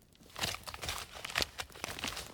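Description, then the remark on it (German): A sack crunches and creaks as a man steps on it, a series of crinkly bursts over about two seconds with no voices. “rief er und trat auf den Sack, dass es knarrte.”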